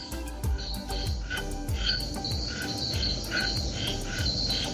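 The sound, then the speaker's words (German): Dense night jungle ambience in the evening at a beach hut in Kawita, with frogs croaking in repeated pulses, layered over a steady shimmer of insects and crickets, continuous. “guten Abend äh, hier aus dem Dschungel”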